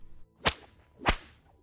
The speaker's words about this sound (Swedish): Och i sitt vredesmod grep han alnen som hängde på väggen och jagade honom ut med hugg och slag.